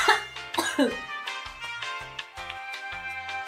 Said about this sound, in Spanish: Vamos a esperar a que termine de toser.